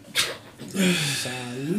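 puppy whimpering and panting

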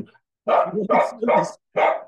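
dog barking angrily

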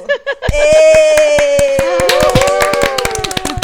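audience applause

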